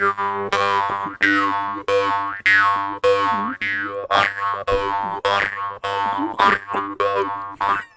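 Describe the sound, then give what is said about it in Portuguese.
A forged metal jaw harp from Ukraine twangs in a steady rhythm of about a dozen plucks, each with a deep droning tone and shifting, wah-like overtones. Loud, with no talking. “Cara, que dá um som mais grave, ó, o último aí, ó.”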